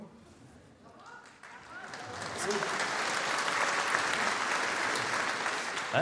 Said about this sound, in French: Je suis content, ma femme, euh, il a applaudi de ouf, il est trop content.